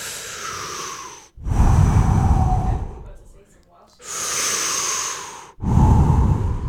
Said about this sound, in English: So I want everybody listening to just take a deep breath. Okay.